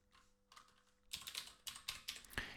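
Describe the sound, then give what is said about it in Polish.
Rapid clicking of keys on a computer keyboard, a quick burst of several keystrokes in a row, fairly crisp, with a softer faint tapping at the start and no voices; someone typing the word "kletwa" into the Name search field on macOS to find MP3 files. “Więc tutaj w tym polu name wpisuję kletwa.”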